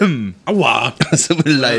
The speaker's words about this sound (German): Alter. Der Husten war echt laut.